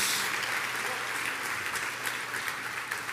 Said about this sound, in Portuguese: Dá uma salva de palmas aí, dá uma acordada aí, meu irmão, em nome de Jesus.